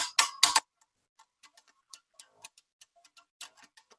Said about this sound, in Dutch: Maar ik ga toch even een bas pakken, oh, voorbereid. Hij is niet aangesloten. Maar je hebt dus gewoon een basgitaar met eh, nootjes, hoor je?